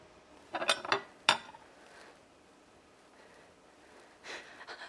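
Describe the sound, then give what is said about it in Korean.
A spoon clinks against dishes in a few quick, bright metallic taps as a man seated at a dining table lifts a spoon and eats a spoonful of rice, then a softer scrape later; the clatter is fairly sharp against a quiet background with no talking. “그리고서는 숟가락을 이렇게 들어서 네. 밥한 숟가락 넘겼죠.”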